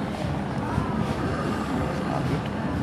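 Artificial breathing from a breathing installation figure with facial expressions plays through its loudspeaker as a steady, airy, wind-like rush, like wind in a forest, with a deep rumbling undertone. It stays at an even, fairly loud level without pauses, and no one speaks.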